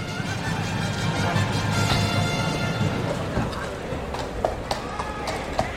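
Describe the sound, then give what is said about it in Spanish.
Horse hooves clip-clop at a steady walk as a horse leaves through the gate during a bullfight, the sharp knocks sitting over a busy background of crowd murmur and outdoor noise. “Se pues ha ido el caballo de la puerta y ahora lo hace el, titular.”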